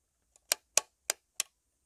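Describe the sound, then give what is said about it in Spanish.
A light switch clicks on and off four times in quick succession, sharp snaps after a faint initial tick, with no talking and silence around them. “Vamos a prender y apagar la luz.”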